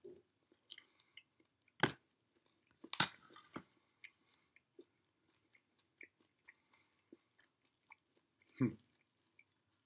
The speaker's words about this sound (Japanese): おもむろにさ、こうやって最近食べるシーン多いけどさ、これみんなどういうじ どういう風に聞いてんだろうね。